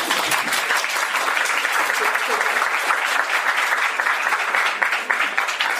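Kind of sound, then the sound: crowd, audience applause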